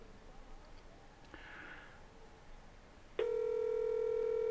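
Quiet background noise, then a loud, steady telephone ring tone cuts in abruptly near the end and holds unbroken, heard through the line while a live radio show connects a phone call to guests.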